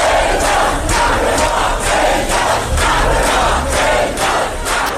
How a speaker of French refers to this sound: Ce matin, elle est finalement rentrée en Iran, accueillie par une foule en liesse.